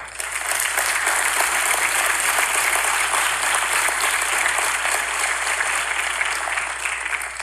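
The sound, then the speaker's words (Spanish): Sustained, loud applause from a crowd, a dense steady roar of many hands clapping at once that holds at an even level for several seconds with no voices on top. “Y entonces el sacerdote dice a la gente, démosle un aplauso a Dios que los sanó. Démosle un aplauso a ver.”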